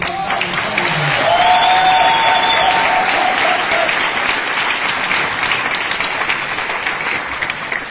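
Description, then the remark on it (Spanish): A crowd applauds steadily for several seconds, a dense, even wash of clapping with a few faint whistles or cheers rising above it early on, applauding a team. “Ese es y equipo al que les pido de verdad con mucho cuidado un fuerte aplauso”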